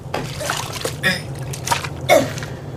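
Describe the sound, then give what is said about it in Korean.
Someone enters the neighbouring toilet stall with a clatter and relieves themselves, an intermittent trickle and splash of liquid over a steady low hum with a few sharp breathy bursts. “그때 누군가 우당탕 소리를 내며 옆 칸으로 들어가 용변을 보았다.”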